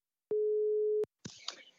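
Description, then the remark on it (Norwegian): A single steady telephone ringback tone while a phone call is placed, one clear pitched beep lasting under a second, followed by a brief rustling burst as the line seems to pick up, with a faint voice. “Ja, vi ringer han, vi. vi ringer.”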